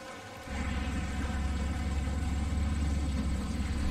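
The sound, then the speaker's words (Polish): A car engine approaching in the distance starts up after a brief quiet moment, then holds a steady, low rumbling hum with a faint harmonic whine, staying at a constant level throughout. “Słyszycie w oddali znowu silnik samochodu, który się zbliża.”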